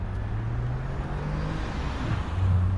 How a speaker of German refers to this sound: Freiburg gilt als liebliche Stadt mit pittoresken Gassen, aber vor dem Hauptbahnhof fahren auf der Bismarckallee viele Autos.